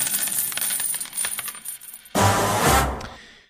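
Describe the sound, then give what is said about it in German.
A coin drops and bounces with a series of quick metallic clinks, then settles into a loud, ringing spin that rattles briefly before stopping. Close and clear, with no voices. “denn springend klingt die Münze.”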